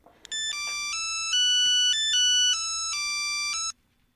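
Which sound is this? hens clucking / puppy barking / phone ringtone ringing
phone ringtone ringing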